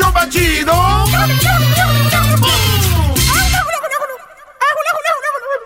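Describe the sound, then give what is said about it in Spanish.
Loud, rapid warbling turkey gobbles repeat over a backing of sustained musical tones, then continue on their own after the music drops out, with a brief pause before a final burst. “¡Este mes del pavo!”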